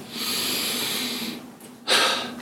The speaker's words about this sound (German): dann atme mich, atme ich jetzt mal richtig tief durch und das mache ich so häufig wie möglich.